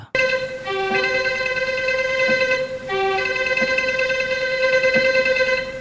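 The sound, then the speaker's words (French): The opening theme music of the TV film programme Ciné Club: sustained, rich instrumental chords held steadily and shifting in two similar phrases, played loudly and continuously with no voices. “Ça commence par les parents, la famille, et ensuite c'est le son de l'émission emblématique de mes parents, le Ciné Club.”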